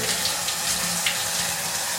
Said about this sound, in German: So, dann ja, genießt einfach das Geräusch der Dusche.